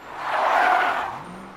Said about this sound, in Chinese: 车子的刹车也是利用了摩擦力的原理。当你踩下刹车踏板，刹车皮就会和刹车盘产生摩擦，让车辆减速甚至停止。